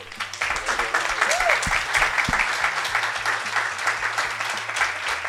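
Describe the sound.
A crowd applauds steadily for several seconds, a dense, even wash of clapping that stays loud throughout, with a few voices calling out underneath.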